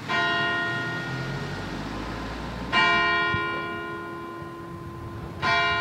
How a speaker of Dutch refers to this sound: En dat is als vroeger de luidklokken, dus niet de bijaard, maar de klokken die de uren slaan, die waren heel belangrijk voor de mensen, omdat de mensen moesten weten hoe laat het was.